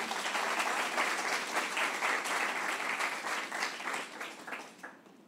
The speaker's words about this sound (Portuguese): Será que você pode aplaudir Jesus?